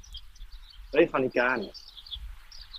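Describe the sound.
Faint birds chirp in the background throughout, scattered high tweets continuing under and around a brief stretch of a man's speech.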